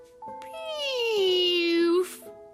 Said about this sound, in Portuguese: a aranha Antonieta estava tão nervosa que soltou um insonso insólito pum